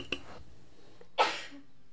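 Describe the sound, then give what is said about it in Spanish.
A single sharp, explosive sneeze bursts out and fades quickly, preceded by a small click and otherwise near-silent background. “Salud, gracias.”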